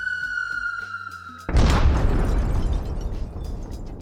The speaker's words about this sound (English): we needed to record explosions because they're, you know, planes crash and rockets crash and explode and burst into flames.